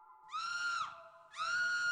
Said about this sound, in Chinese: 他抬头一看，顿时一声尖叫，差点晕了过去。